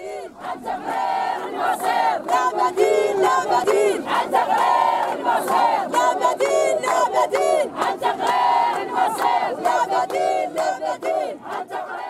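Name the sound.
crowd chanting protest slogans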